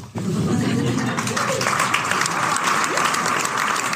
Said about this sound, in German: Ja, Applaus, Applaus. Geht das noch weiter oder was? Das? Nee, das war jetzt das äh, war der äh, O-Ton jetzt.